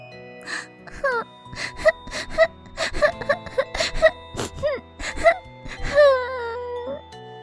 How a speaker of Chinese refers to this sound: 想到这里，小蚂蚁坐在一棵棕榈树下，伤心的哭了起来。